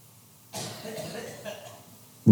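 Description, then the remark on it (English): After a moment of near silence, a single harsh cough bursts out and rings into an echo, caught on a live band recording about 10:55 into a song, followed by a fainter second rasp, then an abrupt loud low thud at the very end. “But it's just so great that he does that and you hear cough.”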